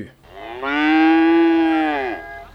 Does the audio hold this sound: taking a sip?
no